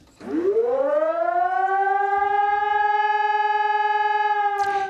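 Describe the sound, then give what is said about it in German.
A loud civil defense siren winds up from a low pitch and holds a steady, sustained wail, continuing without pause for several seconds before cutting off near the end. “Die Sirenen sollen morgen ab 11 Uhr in ganz Deutschland heulen. Ein bundesweiter Probealarm zum ersten Mal seit der Wiedervereinigung.”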